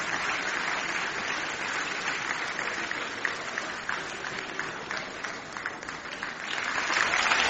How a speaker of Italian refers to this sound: applausi a non finire.